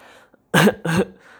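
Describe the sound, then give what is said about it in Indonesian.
Two short, forceful throaty bursts in quick succession, loud, a voice imitating a fake cough used as a hint for wanting ice cream, separated by a brief pause with faint background hum around them. “Pengen pengen es krim tapi nggak nggak pengen ngomong secara langsung nggak pengen to the point jadi sosok batuk gitu”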